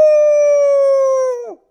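A single long wolf howl, held on one steady mid-pitched tone for over a second before sliding downward and cutting off. It is loud, with no other sounds.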